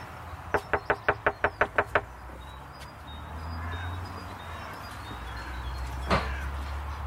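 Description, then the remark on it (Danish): A quick run of about eight sharp, evenly spaced, clear knocks on a door, followed by quiet ambience and one more faint thump near the end. “Du skal da ikke banke lidt hårdere.”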